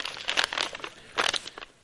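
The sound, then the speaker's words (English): A paper lunch bag crinkles in two bursts of crisp, papery rustling, a longer rustle followed by a shorter one after a brief lull. The crackling is fairly soft, with no talking. “And so Jesus takes the lunch bag,”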